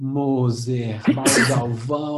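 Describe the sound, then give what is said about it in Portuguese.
A single sharp, close sneeze bursts out in the middle of a man's speech, with talking continuing on both sides of it. “Saúde.”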